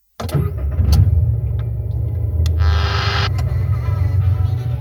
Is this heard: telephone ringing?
no